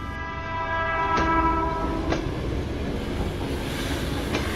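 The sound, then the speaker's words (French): A steam train, a locomotive pulling four carriages, rumbles as it approaches from the end of a tunnel toward a station platform, a steady low roar with a long tonal horn-like drone and a few sharp metallic clanks, loud, no voices. “un bruit gronde au bout du tunnel.”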